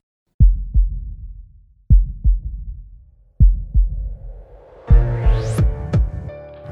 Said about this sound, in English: All this and more, but first, hey DJ, give me that heartbeat.